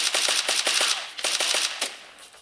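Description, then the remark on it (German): Video game gun firing quick three-shot bursts, each burst fired with a single tap on the screen, sharp crackling pops repeating in clusters of three, loud and rapid with no talking over them. “Da muss ich einmal auf den Bildschirm klicken und die schießt direkt dreimal drei Schüsse ab oder so.”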